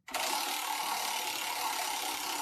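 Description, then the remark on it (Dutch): A prize wheel with entrants' names on it is spun hard to draw a winner, giving a rapid, continuous stream of loud ratchet clicks at a steady fast rate for a couple of seconds without slowing. “Ik denk dat we gewoon even een eh, spin gaan doen en dan eh, gewoon gaan kijken wie er gewonnen heeft.”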